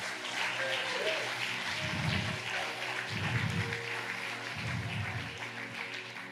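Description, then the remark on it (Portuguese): A church audience applauds the Lord steadily during a sermon, a dense wash of clapping hands filling the whole stretch, with low rhythmic thumps pulsing underneath at regular intervals. “Se você crê nisso, aplaude ao Senhor.”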